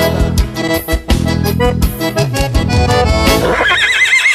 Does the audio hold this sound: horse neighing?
yes